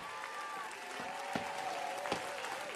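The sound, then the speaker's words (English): An audience at a church service claps steadily and densely throughout, with raised voices shouting unto God over the applause and a few sharper bursts standing out in the middle. “Oh, clap your hands, all ye people. Shout unto God.”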